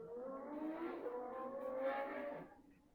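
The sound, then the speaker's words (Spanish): A high, whining race car engine at a racetrack roars steadily for a few seconds, its pitch climbing as it revs at speed, then tapering off near the end. No one speaks. “Del baño pasamos al autódromo.”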